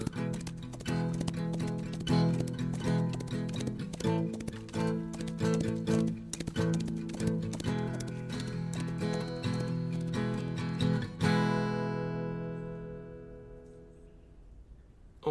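Rapid, rhythmic hoofbeats of a galloping horse pound steadily for about eleven seconds over sustained music, then stop, leaving a lingering tone that fades away.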